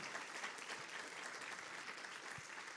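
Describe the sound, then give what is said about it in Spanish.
An audience applauds steadily, giving applause to the Lord for the church servers in yellow shirts, a dense, continuous wash of many hands clapping at an even loudness for the full few seconds, with no voices standing out. “¿No les dar un aplauso al Señor por ellos?”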